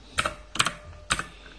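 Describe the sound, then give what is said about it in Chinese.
Computer keyboard typing: three quick bursts of sharp, bright key clicks, each a small cluster of clacks separated by short pauses, with no voices. “你听我这个键盘还不错啊，这声噼里啪啦的。”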